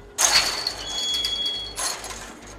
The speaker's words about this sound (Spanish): Se alejó arrastrando los pies y entonces se oyó el chirrido de la puerta que se abría.